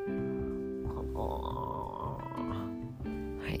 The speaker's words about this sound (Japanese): 隣でねあくびをしているあのうちの旦那です。